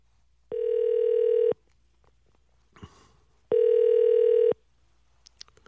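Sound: telephone call ringing out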